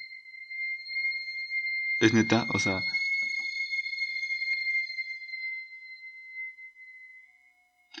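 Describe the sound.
A sweet potato vendor's steam whistle drones steadily and shrilly for several seconds at night, high-pitched and unwavering, while a person speaks briefly over it before it fades.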